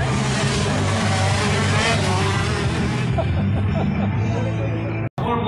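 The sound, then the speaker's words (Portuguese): A race car engine roars and revs loudly as it accelerates on a course with cones set out as obstacles, its sustained growl blending with crowd chatter before cutting off abruptly near the end. “Vocês colocaram alguns cones aqui para meio que servir de obstáculo para o pessoal que está correndo.”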